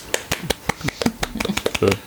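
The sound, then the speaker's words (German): A brief round of hand clapping from a few people for the winner of a quiz, a quick, uneven patter of sharp claps lasting about two seconds, with faint voices murmuring underneath. “Tja, Applaus, Applaus, Applaus.”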